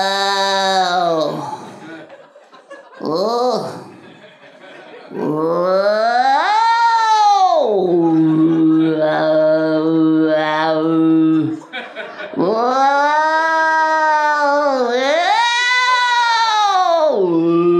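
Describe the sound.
A person imitates a yowling Siamese cat in too small a carrier on its way to the vet, with loud, drawn-out wails that bend up and down in pitch, a few short cries first, then long sustained howls with brief pauses.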